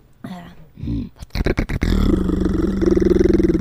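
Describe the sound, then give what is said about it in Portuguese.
A beatboxer's vocal demonstration: a few short growly grunts, then a burst of sharp tongue clicks, then a loud, low, gravelly devil voice with a rapid rattling click roll pulsing steadily underneath, made by folding the tongue so its tip beats rapidly against the roof of the mouth. “Fala a voz do capeta aí com o click roll.”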